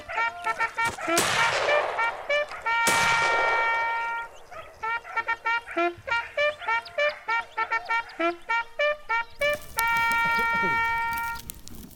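Two sharp, loud gunshot blasts, each with a ringing decay, ring out in the first three seconds. Around them comes a busy run of short, pitched, rhythmic tonal bleats and calls.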